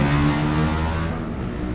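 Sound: motorcycle engine revving outside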